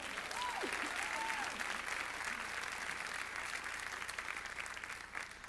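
An audience breaks into sustained applause for the Lord, dense clapping for several seconds with a few scattered voices and faint cheers mixed in, steady and fairly loud throughout.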